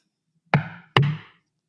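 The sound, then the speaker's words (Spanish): Two firm knocks on a door, about half a second apart, each a sharp hollow thud with a short resonant ring, with silence around them. “Golpean la puerta.”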